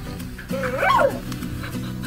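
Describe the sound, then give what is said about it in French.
An interactive robot dog, model B9108, sold as a companion for seniors, lets out a single short, whiny bark that rises and falls in pitch, fairly loud over a steady low background hum. “Laissez-moi vous présenter B9108. Il s'agit d'un robot chien interactif ou, comme certains l'appellent, une peluche d'empathie pour seniors.”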